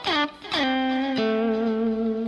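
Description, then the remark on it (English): A distorted electric guitar slides down from above into a note twice, then a third note is plucked and rings out sustained and loud, with no talking. “And then you can slide in, obviously, and out, but you can slide from the top side too.”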